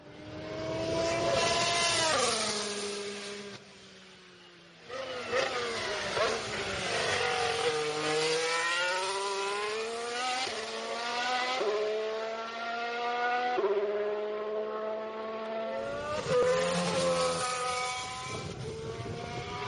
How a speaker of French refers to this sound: pour le bruit des moteurs, je vous propose d'écouter quelques, quelques notes de ce V6